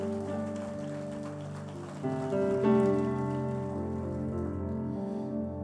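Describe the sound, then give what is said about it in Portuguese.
An audience in a church temple claps for the Lord Jesus, a steady, dense rain-like patter of many hands over sustained keyboard chords, swelling slightly midway and then holding at an even level. “Aplauda ele.”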